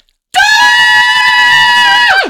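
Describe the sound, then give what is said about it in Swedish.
A loud, sustained high-pitched scream in power metal style, held steady for about two seconds before sliding sharply downward at the end, delivered alone without any talking. “Hörru, vi avslutar med power metal-skrik.”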